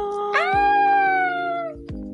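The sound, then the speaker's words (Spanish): A person imitates a cat with one long, drawn-out meow that rises quickly and then slowly falls away. It is loud, over a steady low hum. “a lo mejor le habla así al gato. No le habla, no tiene vocabulario gato, no es dialecto, no.”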